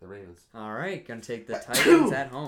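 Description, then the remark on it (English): A man talking is interrupted by one sharp sneeze near the end, a loud burst of breathy noise breaking through his speech before he continues. “Bless you, my friend.”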